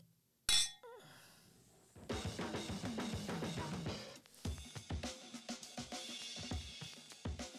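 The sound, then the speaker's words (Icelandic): Glasses of 11% beer clink once in a toast, a single bright ring near the start, followed by several seconds of busy, irregular clattering and shuffling noise. “þessi bjóri er skemmtilegur uh, sætur uh, þetta er kókosbóla í glasi 11% en felur það vel Skál. Skál.”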